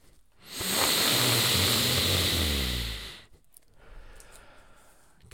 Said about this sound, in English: I'm gonna sniff The Shining, and I'm only you know a couple chapters in